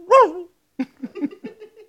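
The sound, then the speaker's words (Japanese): A person imitates a dog with one drawn-out, whiny yelp followed by a quick string of short yips and whimpers, fairly loud. “お前なんで犬の真似してるんだお前もしかして喋れなくなったのかうん、うん。”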